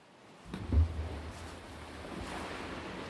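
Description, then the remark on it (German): Atlantic Ocean waves wash onto the shore of Morocco's 2000-kilometre coast, a broad, steady surf roar with a heavier low surge early on, then a continuous rushing wash. No voices are heard. “Seit Jahrmillionen spült der Atlantik Plankton an die 2000 Kilometer lange Küste”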